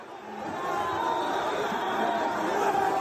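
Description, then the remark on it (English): A large crowd in Melbourne, Australia, roars at 4am in a steady, dense wash of cheering and excited shouting, celebrating Australia's World Cup win over Denmark and qualification for the knockout stages. The sound is loud and sustained throughout, with no single voice standing out. “Australia's qualifying for the knockout stages led to huge crowds celebrating at 4am in Melbourne.”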